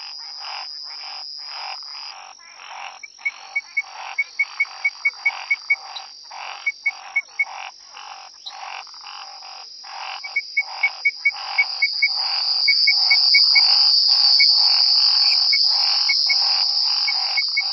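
A nighttime outdoor soundscape in Londrina, Brazil: a dense chorus of frogs croaking in rapid, rhythmic pulses over a steady high-pitched insect drone that swells louder toward the end, with no voices.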